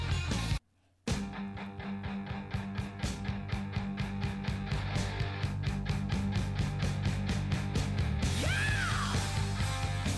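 Loud, driving rock music with pounding drums and distorted guitars after a brief dropout; near the end a singer belts out a high, swooping yell over the full band.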